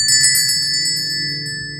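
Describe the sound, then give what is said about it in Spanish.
A doorbell rings insistently as someone arrives at the door, a quick burst of jangling strikes followed by bright, sustained ringing that slowly fades. It is loud, with no voices. “la campana sonó de nuevo como si algún travieso niño hobbit intentase arrancar el llamador.”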